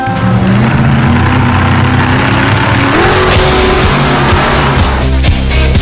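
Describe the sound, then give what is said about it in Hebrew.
Loud car engines rev and climb in pitch over a constant roar, with tires squealing and skidding near the end, like a burst of motorsport action with no voices. “חממו מנועים”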